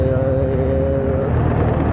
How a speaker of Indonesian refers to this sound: kali ini aku mau nyoba apa ya uh, ngomong sendiri tapi aku kira rekamannya sambil naik motor jadi sambil